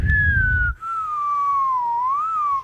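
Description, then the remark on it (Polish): A single continuous synthetic tone, a sonified chart of Facebook stock, glides slowly down in pitch, rises briefly, then dips again. A low rumble sits under the opening before a short break. “I to nie było pyk, pyk, pyk, pyk, pyk, pyk, pyk, pyk, tylko po prostu był jeden dźwięk, który”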